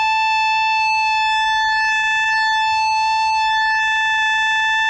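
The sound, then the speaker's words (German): A loud, bright synthesizer pulse wave holds one steady buzzy pitch for about five seconds, its nasal timbre shifting slightly as the pulse width changes, the time the wave is on made different from the time it is off, with no other sounds. “And if I take the time that it's on and make it different from the time that it's off, it changes quality.”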